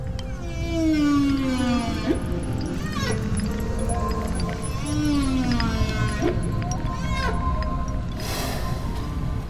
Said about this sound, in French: Et euh, en parallèle derrière ça, le chant des baleines à bosse, parce qu'on était en pleine période de reproduction des baleines à bosse et elles étaient omniprésentes autour de nous dans les chants qu'on entendait.